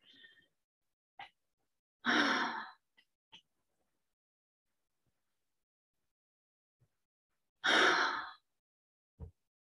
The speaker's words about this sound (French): Faites-les avec la bouche parce qu'en en fait, on sait que euh, on a des respirations alternées, donc pour bien augmenter la capacité de respiration et de l'air qui va rentrer, faites-le avec la bouche. Trois, inspire et expire avec la bouche.